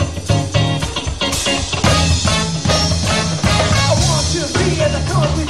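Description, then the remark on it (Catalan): Loud, continuous funk music with a driving groove, busy bass and bright brass-like stabs, playing steadily at a party from start to finish with no talking over it. “de fons el funky de la Dinamo”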